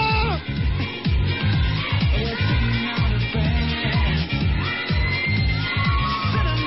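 A loud, continuous roar of an audience shouting and cheering at the Chaparrita de Oro contest, many voices blending into a dense wall of noise with a steady pounding pulse running underneath throughout.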